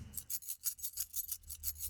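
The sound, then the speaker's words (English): A handful of coins, picked up from a table, shaken next to the microphone of a small Zoom recorder like a percussion shaker for a song demo, in a quick, steady rhythm, about ten bright, rasping jingles in two seconds, with no voices. “Um, and I just picked them up and shook them next to the microphone, like that, next to my little Zoom recorder”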